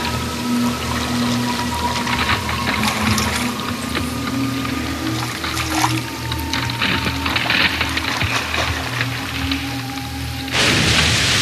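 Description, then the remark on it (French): Water drips from melting, floating icebergs under a hot sun, pattering steadily over a low, constant droning hum, with scattered drops throughout and a louder rushing wash at the very end. “Quelque chose goûte. Ça n'a pas l'air d'être de la pluie.”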